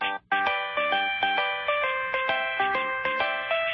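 A bright electronic cell phone ringtone melody plays alone, a quick run of evenly spaced synthetic notes hopping up and down in a bouncy, repeating tune, loud.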